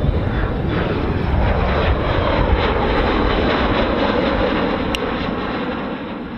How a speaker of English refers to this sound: All right, we have a American Eagle plane taking off.